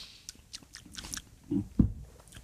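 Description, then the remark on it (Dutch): Quiet mouth sounds: soft wet clicks and smacks, then a low, muffled gulp as a sip of rosé wine is swallowed near the end. No one speaks. “Ik slikte hem door.”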